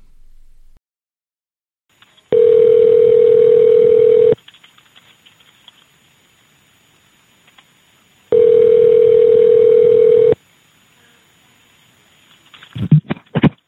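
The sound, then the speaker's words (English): A Metro Police dispatcher's telephone call back to a boyfriend rings, with two long, steady ring tones separated by silence, followed by a brief clatter as the call is picked up. “The dispatcher has the telephone number for the boyfriend and ends up calling him back.”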